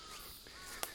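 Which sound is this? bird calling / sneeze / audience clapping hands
bird calling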